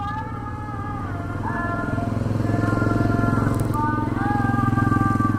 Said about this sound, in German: Mit dem Motorrad geht es von der Anlegestelle der Insel ins kleine Fischerdorf Bonebaru.